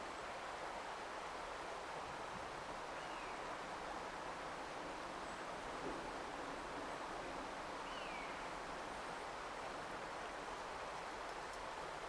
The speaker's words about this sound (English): The jangly metal sound is my dog Euro, that's his collar. take a little walk together. I'll let you tune into the sound of the water and the birds. And Euro's collar again.